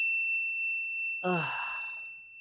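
A Facebook notification chime on a phone, about a high school classmate getting engaged, rings out as a clear, sustained high tone that lingers throughout, and about a second in a person lets out a loud, breathy sigh over it.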